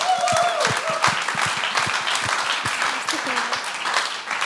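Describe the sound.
An audience applauds steadily, many hands clapping in a dense, sustained patter, with a few faint voices and whoops rising above the clapping.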